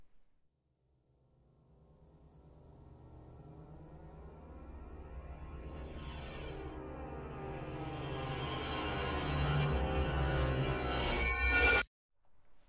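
Pieces of metal thrown at piano strings, recorded and then played in reverse as the rising opening sound of a 1982 song: a dense, ringing metallic shimmer swells steadily from near silence to loud over about twelve seconds, then stops abruptly.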